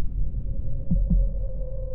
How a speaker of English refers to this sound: But for many minutes, the heart beat on with a muffled sound. This, however, did not vex me. It would not be heard through the wall.